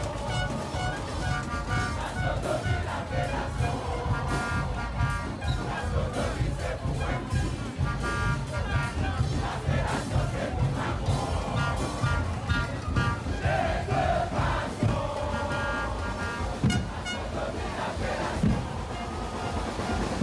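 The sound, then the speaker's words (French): Busy street ambience in the streets of Fort-de-France, Martinique: a dense, steady wash of crowd chatter and shouting runs throughout at a constant loud level, with traffic noise and occasional sustained horn-like tones rising above the din. “Direction la Martinique dans les rues de Fort-de-France.”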